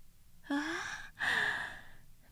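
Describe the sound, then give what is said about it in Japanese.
A voice acts out the drawn-out yawn of a flower that has just opened at sunrise, in two breathy phases, a gasping inhale sliding downward in pitch followed by a long sighing exhale, fairly loud with no other sounds. “ようやくある朝ちょうどお日様が昇る頃パッと花が開いたあまりに気を配りすぎたからかその花はあくびをした”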